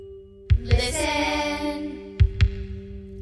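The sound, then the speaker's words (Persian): A heartbeat sound effect: two double thumps in a lub-dub rhythm, spaced well apart, over a steady low hum with a brief swelling tonal whoosh between the beats. “Can you hear the sound of hearts”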